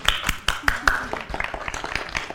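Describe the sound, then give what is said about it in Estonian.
A short round of applause as listeners clap for themselves: quick, irregular hand claps from a few people, steady and fairly loud throughout, with a brief vocal sound mixed in near the start. “no nii, head äh, kuulajad, mul on ettepanek, tee endale üks suur aplaus, et sa vastu pidasid ja tee üks kallistus ka.”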